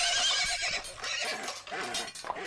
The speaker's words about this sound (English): Ha! The Earl's own horse.